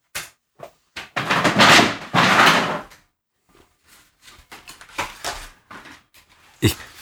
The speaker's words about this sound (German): Es liegt daran, meine Freundin packt Einkäufe aus.